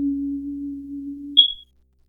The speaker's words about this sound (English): I'm really sorry about my smoke detector that I won't change the batteries for, friends.